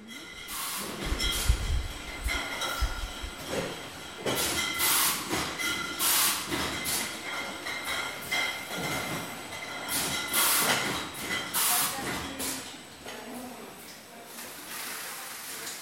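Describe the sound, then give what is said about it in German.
Strong wind roars and buffets steadily outdoors at a vineyard estate lying between two mountains, twelve kilometres from the sea, with heavy low rumbling gusts early on, breathy surges of hiss rising and falling throughout, and a faint thin whistling tone underneath. “Es weht ein starker Wind, denn wir sind nur zwölf Kilometer vom Meer entfernt”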